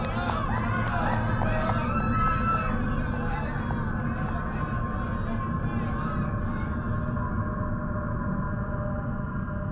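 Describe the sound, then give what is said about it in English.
A large crowd screams, shouts and laughs, a steady wall of overlapping voices with high cries rising out of the din throughout. “I could still hear the screams and laughter, but I didn't care.”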